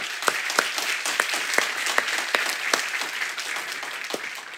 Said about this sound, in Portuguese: Quero agradecer a essa equipe que se dedica tanto à adoração e que faz extravasar nesse momento tudo que eles são, tudo que eles vivem e nos abençoam tanto e uma salva de palmas para o nosso grupo de louvor. Vamos lá?